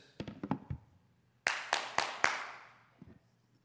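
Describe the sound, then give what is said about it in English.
A quick run of soft taps, then four sharp, loud hand claps in steady succession, each ringing out with a lingering tail before it fades to quiet, demonstrating clapping as done in the City of David by Jerusalem's old city. “when you're up in the city of David and you clap, what happens is your clap crescendos and it reverberates through those valleys and in the mountains and it echoes.”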